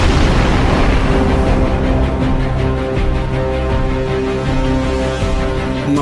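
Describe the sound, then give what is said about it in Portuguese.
A heavily damaged bomber plane dives and crashes into a Wehrmacht vehicle yard, exploding in a loud, sustained roar, deep rumbling mixed with droning engine tones that fill all six seconds without letting up. No voices. “O piloto, com o consentimento mudo de todos os tripulantes, num gesto brusco com lágrimas nos olhos, mergulhou com um grande bombardeio, seriamente danificado, indo se esmagar num pátio de veículo da Wehrmacht. Uma tremenda explosão.”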